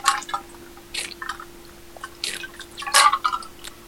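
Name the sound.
drinking water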